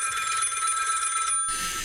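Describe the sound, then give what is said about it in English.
An old-school telephone bell rings loudly and continuously with a rapid metallic clatter, the ring shifting briefly near the end without pausing, as a call is placed to a 1-800 hotline called Homeschooling Problems Are Us. “And uh, wow, it's got kind of an old school phone.”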